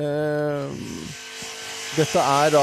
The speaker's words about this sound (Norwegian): Det er lyden av fritid. Skal jeg fortelle hva dette heter på italiensk? Ja. ja. Sago circolare. Sago circolare. Sago circolare. Ja, sirkelsagen har gått. Ja, sirkelsagen, Hvorfor har den gått? For det er bygging av eh, markplatting